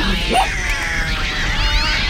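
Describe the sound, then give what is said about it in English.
Several cats meow and yowl loudly over one another, their wavering, drawn-out cries overlapping continuously against a busy, noisy background. “Get out, you cat's Shoo!”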